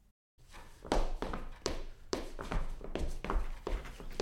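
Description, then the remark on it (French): Quick, rhythmic foot taps and shuffles of someone dancing the Charleston, a steady run of fairly loud steps with no talking. “Ok ouais j'avoue, tu sais danser le Charleston.”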